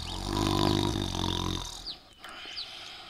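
A sleeping wolf snores loudly, a deep, rasping snore drawn out in one long breath for under two seconds, then fading to quiet with a few faint high chirps.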